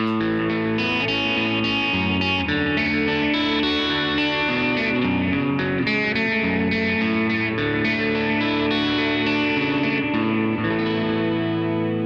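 Guitar played through the ambient delay setting on the D footswitch of a pedal, plugged straight in with no speakers: sustained chords and notes smearing into a washy, echoing trail, with steady loudness throughout and no one speaking.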